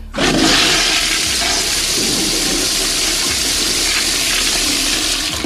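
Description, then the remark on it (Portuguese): A loud toilet flush roars with rushing, gurgling water, starting abruptly and holding steady for several seconds without fading. No one speaks over it. “Eu vou dar descarga nele.”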